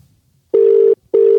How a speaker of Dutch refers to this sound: Ja, we gaan even bellen. Weer typische Engelse telefoon. Bellen naar Engeland. Gaat hij over?